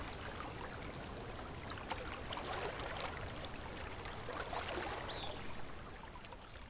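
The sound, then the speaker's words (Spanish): Gentle river water flows steadily, a soft continuous rush and babble with light splashes, even in level throughout, with no voices. “Y te invito a acompañarme a las apacibles orillas de un río mientras te voy contando una historia taoísta que quizá te ayude a fluir con la corriente de la vida.”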